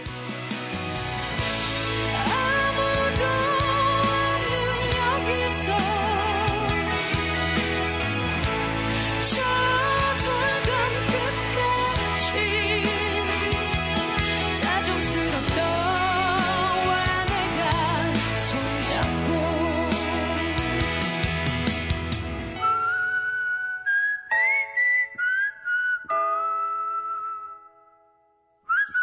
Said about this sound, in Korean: 마지막 곡으로 들려드리며 인사드릴게요.